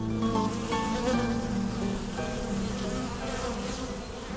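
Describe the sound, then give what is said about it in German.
A dense, steady hum of many honeybees buzzing, a continuous droning texture with overlapping wingbeat tones and no voices, as a bee performs the waggle dance, moving in semicircles and vibrating its abdomen up to 15 times per second. “dazwischen vibriert der Hinterleib der Biene bis zu 15 Mal pro Sekunde”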